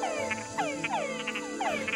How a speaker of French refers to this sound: Près de Rio de Janeiro, il m'arrivait souvent de m'asseoir dans la soirée pour écouter de petites hilae perchées sur de hautes herbes proches de l'eau qui faisaient retentir un doux ramage de notes harmonieuses.